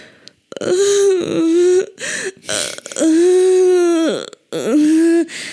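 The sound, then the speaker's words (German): A voice imitates a man whimpering during sex: drawn-out, strained moaning tones in three long stretches broken by brief catches and pauses, loud, with no speech. “die haben gerade Sex und er klang so, als würde er wimmern.”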